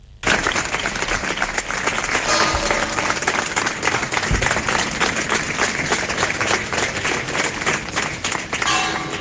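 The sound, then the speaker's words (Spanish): Residents of Algeciras applaud steadily and warmly around 10 at night as the hearse carrying the body of Diego Valencia arrives at the church of La Palma. Dense overlapping clapping is sustained for several seconds outdoors, with no speech over it. “Con este sentido aplauso recibían los vecinos de Algeciras al filo de las 10 de la noche la llegada del coche fúnebre con el cuerpo de Diego Valencia a la iglesia de La Palma, de la que fue sacristán durante 16 años.”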